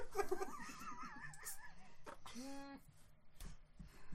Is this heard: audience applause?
no